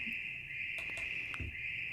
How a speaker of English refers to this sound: And cricket. okay, we'll say goodbye to our little cricket frog binaural sound.